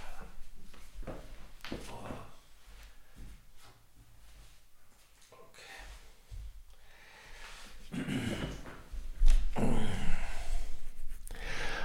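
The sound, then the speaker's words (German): A dog noses and paws at doors, opening them again: scattered clicks, scratches and shuffling knocks, rising to louder rustling and thumps near the end as the door gives way. “So, äh, macht der Hund hier wieder die Türen auf.”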